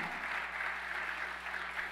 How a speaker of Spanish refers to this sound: Vamos iglesia, yo quiero que usted le dé un aplauso fuerte al Señor.